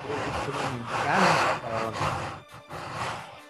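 A person snoring loudly, with rough, raspy rattling breaths that swell and fade in a few long surges, with a brief gap near the end, and no talking.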